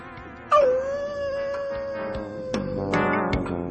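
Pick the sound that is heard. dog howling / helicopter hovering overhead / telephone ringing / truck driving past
dog howling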